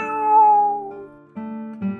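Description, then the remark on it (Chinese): A drawn-out, wavering meow rises and then slowly falls, followed after a short pause by two briefer, lower tonal sounds. “蒙上眼睛，藏猫猫。喵！”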